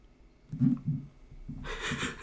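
A drawn-out yawn: a low voiced groan that rises and falls, then a long breathy exhale trailing off. No speech, just one person's yawn at moderate volume.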